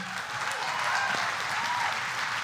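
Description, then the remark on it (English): A crowd applauds with steady, dense clapping that holds at an even level throughout, forming a continuous wash of many hands with no voices standing out. “if you're not clapping in Birmingham, please start clapping right now because that would be uncomfortable.”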